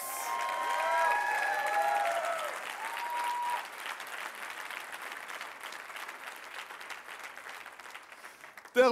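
An audience bursts into sustained applause with whistles and scattered cheers to welcome the new Terrebonne church site, loud at first and then easing into steady clapping that tapers toward the end, with a sharp jolt just before it stops.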